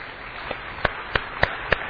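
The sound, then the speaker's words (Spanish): Sparse audience applause welcoming a first-time visitor: about five sharp hand claps at a slow, fairly even pace, standing out above a steady background hiss. No one speaks. “Un aplauso, por favor.”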